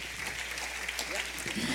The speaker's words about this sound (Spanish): Denle un aplauso al rey.